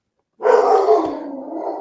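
A dog lets out a loud, drawn-out growling bark, one continuous rough vocalization lasting over a second after brief silence, with no talking.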